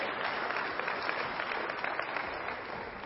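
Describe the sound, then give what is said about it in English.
A steady round of audience applause, dense crackling claps sustained evenly for about three seconds with no voices over it, fading slightly at the end. “Yeah, a little round of applause for Jonah.”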